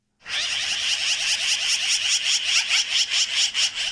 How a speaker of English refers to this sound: Ah, oh, it's springtime in the Rockies when a black-billed magpie's thoughts turn to love. And as you can hear, that's a noisy time of year.